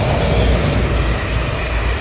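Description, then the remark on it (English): A double-decker train rumbles past on the right, a loud, steady roar of wheels and carriages filling the whole two seconds with no voices over it. “It's a double decker train here passing on my right.”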